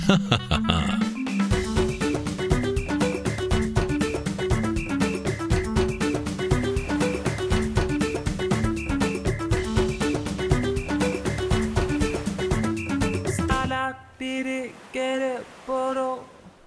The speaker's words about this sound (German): so, das war der Jingle von Puerto Partida